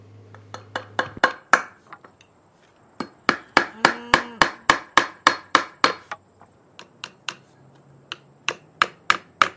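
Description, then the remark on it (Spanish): A hammer drives nails into a wooden board with a steady run of sharp, loud knocks, pausing briefly after the first few blows before resuming, as Jack White builds an instrument from a board, nails and a Coca-Cola bottle in the documentary Might Get Loud. No one speaks. “todos nos sorprendimos cuando Jad White eh, creaba un instrumento con una tabla, unos clavos y una botella de Coca-Cola en un documental llamado Might Get Loud.”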